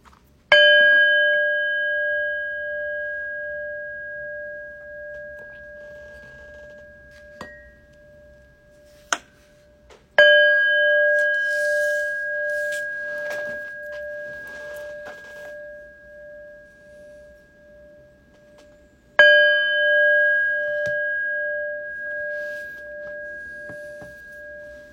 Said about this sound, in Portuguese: a gente convida o sino a soar três vezes para o começo da prática